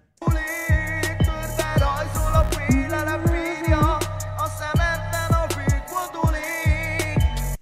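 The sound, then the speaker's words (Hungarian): A sung verse plays over a full band with thumping bass notes and a steady beat, the melody moving continuously and loudly from start to finish. “Ezt most meghallgatom még egyszer ezt az éneket, de szerintem ez jó.”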